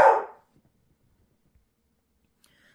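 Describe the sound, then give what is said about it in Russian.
A single sharp, loud bark from Zena the dog, stirred up by other dogs walking by the gate, rings out at the very start, then fades into near silence with only faint, scattered noises for the rest of the moment. “Там собаки ходят возле калитки, и вот Зена их чувствует, разбушевалась.”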